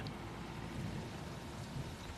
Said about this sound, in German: Auf geht's Richtung Regenmassen, Sturmböen, Blitz, Donner und Hagel.